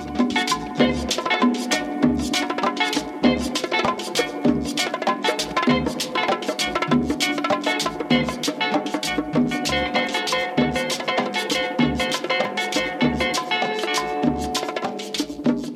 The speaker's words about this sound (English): So, what you're hearing is that very definitive 60s style guitar, almost tinny with a lot of reverb, you know, kind of like kind of high sound before all the big crunchy guitars came in.